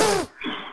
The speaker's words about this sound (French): à tes souhaits.